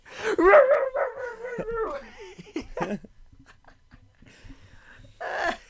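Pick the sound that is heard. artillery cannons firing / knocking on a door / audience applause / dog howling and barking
dog howling and barking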